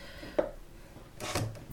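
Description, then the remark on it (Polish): A knife chops boiled eggs gently into small pieces on a cutting board: a sharp tap, then a softer cluster of quick cuts, fairly quiet, with no talking. “I mogę przystąpić do krojenia jajek. Kroję na małe kawałki, też mniej więcej takie jak wcześniej warzywa.”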